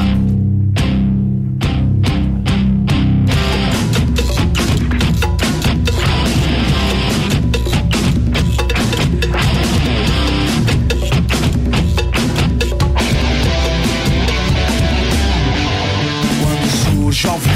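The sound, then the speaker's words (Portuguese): A loud, driving rock version of the Palmeiras football club anthem plays continuously with heavy drums, distorted guitars and dense full-band sound, keeping a steady anthem-like beat throughout without any talking. “Hoje, o Palmeiras Fechou líder, né? Temos que ouvir aquele, ah, aquele rock novamente.”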